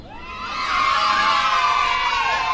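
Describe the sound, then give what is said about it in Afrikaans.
A lively crowd cheers and claps loudly at a Christmas Day ceremony honouring Sarkie, a Jack Russell, with dogs barking and excited children's high-pitched shouts and whoops rising above the sustained roar, swelling after a brief start and staying strong throughout. “Die mense klap hande. Die honde blaf en die kinders spring van opgewondenheid rond.”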